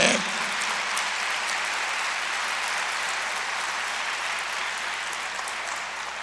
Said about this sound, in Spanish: Si es para Cristo, denle un aplauso fuerte, fuerte, fuerte.